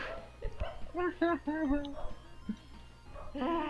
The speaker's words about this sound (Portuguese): Minha cadela tá latindo.